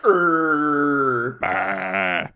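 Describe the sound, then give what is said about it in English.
A person vocally imitates a cow, mimicking the Battle Ox card's soundbite, letting out a long, loud, low grunting moan that shifts into a rougher, strained bellow before trailing off, with no talking. “like actual dies, cow noise.”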